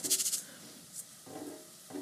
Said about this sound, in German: Das klingt jetzt super, jetzt wo die Tomaten mit Flüssigkeit drinnen sind. Im Topf ist das so ein richtig schönes Brutzeln. So, schub, Reis kommt in unseren Topf.